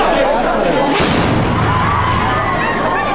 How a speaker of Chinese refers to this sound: 一声巨响，吓得民众再次放声尖叫。爆炸声来源处，浓浓白烟冒出。